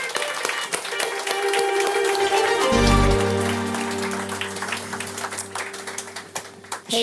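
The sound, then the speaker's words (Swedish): Steady, dense applause with many hands clapping for the evening's first guest on a show, joined partway through by a sustained low tonal swell of music that continues underneath as the clapping carries on. “En eh, varm, varm applåd för henne.”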